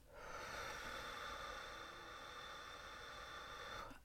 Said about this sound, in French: Je souffle, je vide.